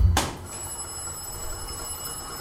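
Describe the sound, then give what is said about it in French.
An alarm bell in a railway signal box rings continuously after a brief sharp onset, signalling a faulty set of points. It is a steady high-pitched metallic ringing that holds unbroken for the whole stretch with no voices. “Et euh, il y avait donc une sonnerie qui tintait en permanence”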